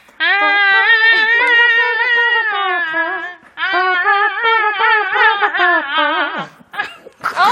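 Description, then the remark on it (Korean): A trumpet and a haegeum play a sustained melody together, their bright and nasal tones bending and sliding between notes, loud and close, with a short break midway before a final swooping phrase. “트럼펫과 해금의 만남.”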